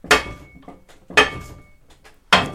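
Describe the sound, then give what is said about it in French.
A bookbinding press slams down three times at an even, roughly one-second rhythm, each heavy strike putting several tonnes of pressure on paper sheets and signatures to press them flat, leaving a brief metallic ring before fading. No voices are heard. “Voilà, donc là on percute et donc ça met une pression de plusieurs tonnes en fait sur les, sur les papiers, sur les cahiers, et ça, ça permet, quelque chose, enfin, ça permet d'avoir quelque chose de bien bien plat.”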